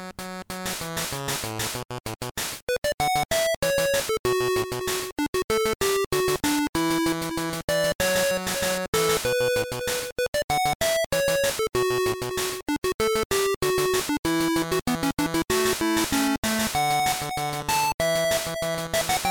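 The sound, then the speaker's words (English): A chiptune song from the video game Solar Striker plays on its own: bright, buzzy square-wave melody lines hop quickly over a steady pulsing bass, loud and continuous throughout with no voices. “yeah, we'll, you guys will hear about our thoughts about this game after this nice short break with a song from the actual Solar Striker game.”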